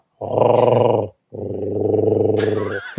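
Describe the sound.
A person imitates a raven's deep croak with two long, low, gravelly calls, the second one longer. The voice is fairly loud, and there is no other talking.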